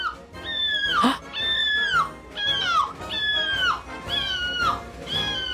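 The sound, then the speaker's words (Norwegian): A dressed-up person at a microphone in a small bar, competing in a European seagull-calling championship, imitates seagull cries with a series of about six loud, piercing squawks that slide downward in pitch, repeated in quick succession. “det er en liten bar hvor det bare folk kommer opp til mikrofonen, og de har kledd seg litt ut, kanskje, ja. og så begynner de å skrike som måker måker.”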